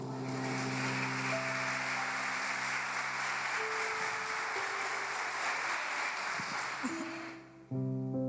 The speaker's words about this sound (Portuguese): Essa é a hora que você aplaude a Jesus, irmão.